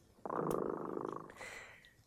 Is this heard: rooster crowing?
no